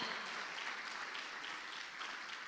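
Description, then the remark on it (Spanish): An audience claps for the Lord together in a dense, sustained burst of applause, steady and fairly loud throughout, with no voices standing out above the clapping. “Dele palmas fuerte al Señor.”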